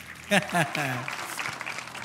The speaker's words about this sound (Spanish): aplauso a Toy Story 4.